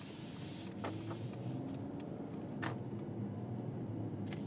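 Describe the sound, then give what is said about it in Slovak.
Steady low road rumble fills the cabin of a comfortable car driving off-road, with a constant engine and tire drone and a few brief rattles and clicks from inside the vehicle. “je dobré, že toto auto je také pohodlné a že sme v ňom práve teraz, lebo v GLAčku by sme sa vytriasli úplne najviac.”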